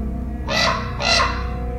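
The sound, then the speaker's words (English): Two harsh, hoarse croaking calls from a common raven, a large all-black corvid, evenly spaced and fairly loud, standing alone over a low steady background hum. “common raven is a massive, cunning, all black corvid with a huge bill and a shaggy neck. It can make as many as 33 different types of sounds, including some calls that can be heard over a mile away.”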